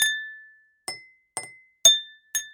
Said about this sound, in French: Elle remplit deux verres, l'un avec beaucoup d'eau et l'autre avec un petit peu d'eau. Elle saisit une cuillère et tape sur les verres.